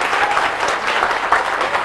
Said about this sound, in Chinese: 但是如果你们此时能够给我点掌声和笑容的话，我会好一点。